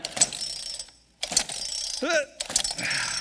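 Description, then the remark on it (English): Three quick pulls of the starter cord of a chainsaw with gas and oil in its tanks, each a rasping ratchety whir that fades without the engine catching, separated by brief pauses. “And no matter how many times I pull on this pull cord, the engine's not going to turn over.”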